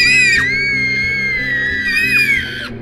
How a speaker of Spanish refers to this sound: Inmediatamente, la clase se convirtió en una auténtica sala de los gritos.